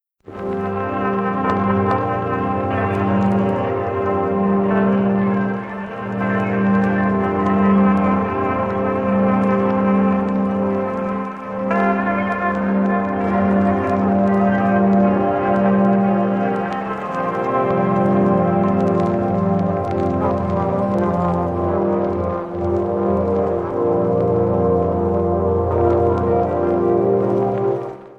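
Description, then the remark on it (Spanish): A slow, timid violin melody of long, sustained notes drifts over a dense, droning hiss of static and strange sounds, the tune steady but smeared and partly swallowed by the noisy wash around it. “Efectivamente, un violín tímido parece que entona la melodía que ya hemos escuchado, pero la estática y los sonidos extraños hacen que por momentos ni siquiera oigamos nada.”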